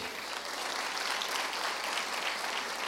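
A church audience applauds the Lord steadily, a dense, continuous wash of many hands clapping at an even, sustained level throughout, with no talking over it.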